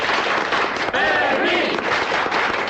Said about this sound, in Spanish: Yo pido un aplauso muy grande para el guardia Fermín.